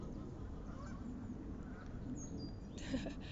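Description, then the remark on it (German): A flock of ducks quacks and chatters continuously, a busy overlapping stream of calls at moderate volume, with a slightly louder squawk near the end and no voices. “guckt gerade voll entsetzt in die Richtung der Enten.”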